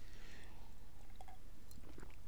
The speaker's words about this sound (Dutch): Even een slokje water, sorry.